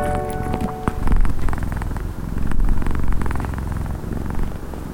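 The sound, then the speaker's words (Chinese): A cat purrs steadily in a low, rumbling drone, the sound swelling and easing in slow waves with each breath, fairly loud and with no talking over it. “这是猫咪呼噜呼噜的声音，猫咪发出呼噜呼噜的声音。”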